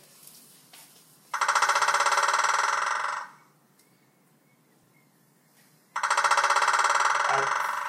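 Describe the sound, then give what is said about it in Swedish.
Two long bursts of white-backed woodpecker drumming, each a rapid, even roll of hard taps lasting about two seconds and trailing off at the end, separated by a quiet pause. “Det var fortfarande vitrygg.”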